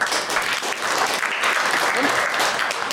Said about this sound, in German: Hier ist dein Applaus.